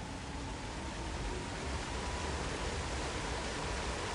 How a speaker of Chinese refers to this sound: 才刚听见一阵哗啦啦的瀑布声。他们就被突如其来的大水花跟着瀑布一起往下冲，